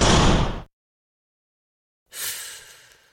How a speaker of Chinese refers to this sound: 没等这女的说完，男人已经摔门出去了。巨大的摔门声不但震得我耳朵嗡嗡直响，也吵醒了四零二那对夫妇。